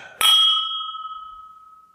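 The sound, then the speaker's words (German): A single bright clink of beer glasses touching in a toast, ringing on with a long, clear tone that slowly fades over a couple of seconds. No voices, just the resonant chime. “Die hallen noch schön nach, die Gläser.”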